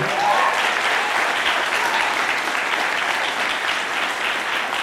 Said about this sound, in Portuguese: A propósito, Revu Church, vamos dar uma salva de palmas para os líderes de GPS hoje.